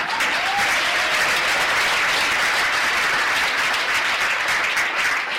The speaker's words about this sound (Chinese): 给你们自己一个热烈的掌声。